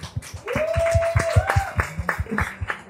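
A crowd claps steadily for a few seconds, a dense patter of overlapping hand claps with a couple of rising whistles or cheers mixed in.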